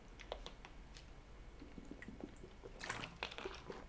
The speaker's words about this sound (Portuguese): Deixa eu tomar uma água.